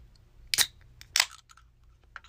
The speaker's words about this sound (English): gotta crack a little cold one. Right now, I'm about to sip on some. Let me, let me taste it real quick. Yeah, yep. So I'm sipping on a, a Happy Dad Wild Cherry.